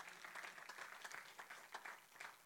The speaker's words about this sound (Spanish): Den un aplauso fuerte al Señor.